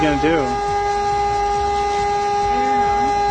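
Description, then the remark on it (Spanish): A car horn blares in a steady, unbroken tone through the whole stretch, fairly loud, while people talk faintly underneath it. “Y ahí se acerca el dueño del carro.”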